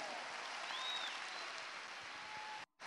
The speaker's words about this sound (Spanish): ¿Te atreves a dar un aplauso al Señor, Salón de los Eventos de Venezuela?